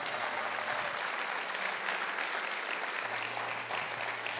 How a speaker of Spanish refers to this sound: Vamos, si usted lo recibe, dele un aplauso fuerte al Señor.